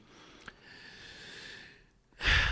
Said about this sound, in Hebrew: מעלה פה נקודה שגורמת לי לקחת נשימה עמוקה, כי זאת אה, נקודה כואבת